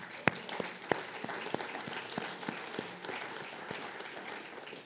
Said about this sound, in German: Lass uns Applaus für Herrn Jesus.